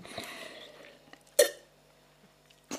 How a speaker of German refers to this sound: schlürft er.